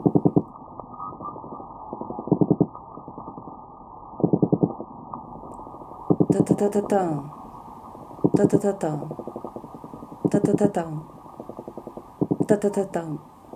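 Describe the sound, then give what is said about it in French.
Underwater recording of brown meagre (Sciaena umbra) fish drumming: rapid bursts of low pulsed knocking, like machine-gun rattles, repeating every couple of seconds, loud, with no voices; each call is answered by another fish further off repeating the same pattern. “Quand j'écoute le corbe, le Siaena umbra,”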